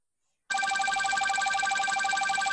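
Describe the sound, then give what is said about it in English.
A loud, continuous electronic office phone ring starts abruptly after a brief silence, a steady warbling trill with bright harmonic tones that holds at full volume to the end. “an office phone. That's like the back of the office phone.”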